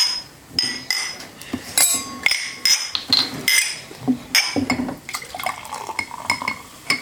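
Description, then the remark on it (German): Repeated bright clinks of glasses in a toast, several sharp hits in quick irregular succession over about seven seconds, with some clatter like dishes or cutlery and no talking. “Und dazu haben wir heute eine ganz besondere Verköstigung. Prost! Cheerio!”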